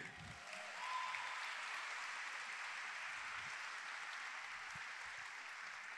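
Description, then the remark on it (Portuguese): A crowd applauds steadily for several seconds, a dense, even wash of many hands clapping with no pauses and no voices, holding a constant loudness throughout. “Ah, uma salva de palmas, obrigado.”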